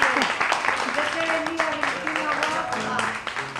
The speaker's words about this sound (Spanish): Damos otro, otro aplauso.